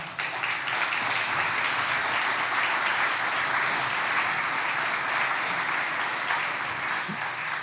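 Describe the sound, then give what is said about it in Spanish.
An audience claps loudly and steadily for several seconds to welcome a guest, a dense, continuous wash of many hands with no voices standing out above it. “a quien quiero que recibas con un fuerte aplauso.”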